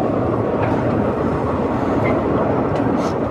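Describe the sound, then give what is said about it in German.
A loud, steady roar of a Moscow metro train in motion, heavy low rumble with faint metallic squeals rising briefly above it, no talking throughout. “jetzt viel Spaß beim Weiterhören in der Metro.”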